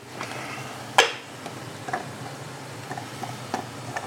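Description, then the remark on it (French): A small silicone spatula scrapes and taps inside a blender jar, pushing the mixture that has risen back down from the sides, with one sharp knock near the start followed by a few light, scattered clicks and scrapes, no talking. “Avec une petite marise, on va venir chatouiller les bords du mixeur voilà, pour faire retomber ce qui est monté.”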